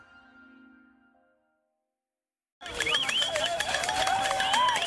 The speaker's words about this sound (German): Sie schlagen auf Töpfe, pfeifen, schreien, klatschen in die Hände. Die Menschen in der Samburu-Region in Kenia versuchen mit allen Mitteln, die sie haben, Heuschrecken zu vertreiben.